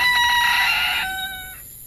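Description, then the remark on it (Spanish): A rooster crows once, loudly, its harmonic call holding steady before tapering off near the end. No voices are present. “De repente, el gallo irrumpió con su llamada.”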